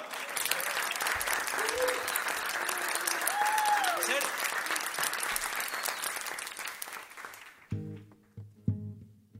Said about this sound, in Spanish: Un pedazo de aplauso